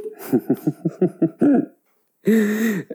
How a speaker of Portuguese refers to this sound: Desculpem, vou tossir. Juro que não é corona.